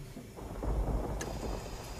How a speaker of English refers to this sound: It had begun to rain outside, and the build-up of condensation clouded the bedside window.